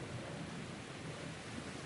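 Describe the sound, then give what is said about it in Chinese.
A thunderstorm with heavy rain: a dense, steady rush of downpour with a low rumbling underneath, holding an even loudness throughout, with no voices. “可是前面的路还很长，村庄遥遥无望，女孩就像一只无助的蔷薇，在狂暴的风雨里颤颤发抖。”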